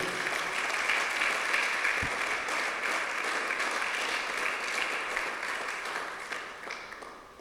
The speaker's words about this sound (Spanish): Le da un aplauso al rey, hermano.